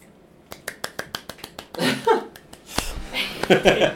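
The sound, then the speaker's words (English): A quick, steady run of about eight sharp finger clicks given as applause, followed by a few scattered snaps mixed with breathy laughter and vocal noises. “I can't click my fingers.”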